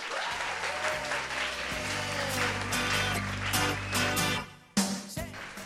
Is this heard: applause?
yes